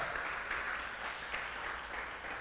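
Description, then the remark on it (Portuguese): A crowd applauds for their own lives, clapping steadily in dense, sustained applause that fills the space evenly for a couple of seconds, with no voices rising above it. “Ah, dá um aplauso pela tua vida.”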